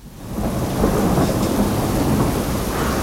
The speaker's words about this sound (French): Prenez un parapluie, il y a de l'orage dehors.